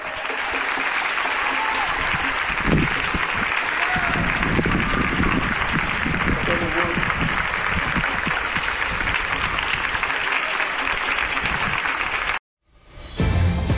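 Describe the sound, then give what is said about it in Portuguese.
People in coronavirus isolation in Granada, southern Spain, applaud a Brazilian man's violin performance from a building balcony with loud, dense, steady clapping that carries on for about twelve seconds, cuts out abruptly, then briefly swells back in. “No final da apresentação, ele foi aplaudido pelo público que está em isolamento.”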